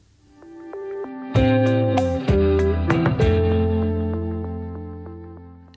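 A short burst of loud pop music with distorted, effects-heavy instruments, steady sustained chords and punchy hits that kick in after a quiet opening, with no one talking.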